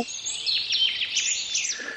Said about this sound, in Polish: Albo zięba, najlepiej opisany ptak w naszej e, ornitologii, ma taką trzyczęściową, bardzo ognistą zwrotkę, wolno, szybko, wolno i z takim zawiazem na końcu. Zięba śpiewa Myślałeś, łobuzie, że cię na śliwkach nie widział?